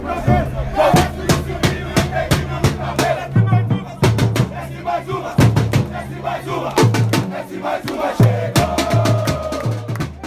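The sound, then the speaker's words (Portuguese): A loud crowd of football fans chants and cheers in rhythmic unison after their team scores a goal that secures qualification for the next round of the Supercopa de Diadema, with sharp percussive beats, likely drums or claps, punctuating the chant steadily throughout. “O time ainda fez mais um gol e sacramentou a classificação para a próxima fase da Supercopa de Diadema, dando o melhor presente que essa torcida apaixonada poderia pedir.”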